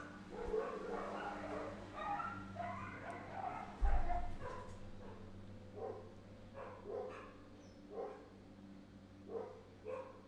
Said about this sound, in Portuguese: Gente, esses cachorros me matam.